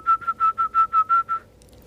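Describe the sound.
A person whistles a fast run of eight short, even notes at one steady high pitch, clear and fairly loud, ending abruptly with no talking; it is the typical whistle used to cue a horse to urinate.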